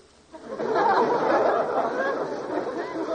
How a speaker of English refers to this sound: This is New Year's Eve. Crowds, laughter, songs. I adore New Year's Eve.